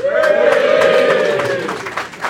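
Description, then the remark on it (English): A live show audience cheers and whoops loudly for a couple of seconds, a sustained rising wave of many voices with scattered claps, then fades slightly at the end. “Uh, but they've all sent me messages, so I'm going to read them out and you can cheer or boo your favourites.”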